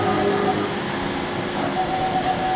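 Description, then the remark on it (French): A 3D printer runs steadily, printing plastic supports for a PCB, giving a continuous mechanical hum with thin, whining motor tones that shift pitch as it prints, fairly loud. “C'est quoi ça C'est une imprimante Elle fait. Elle produit maintenant des supports pour un pour un PCB.”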